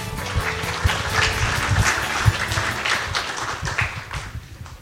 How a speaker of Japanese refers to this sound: 大きな拍手をお願いいたします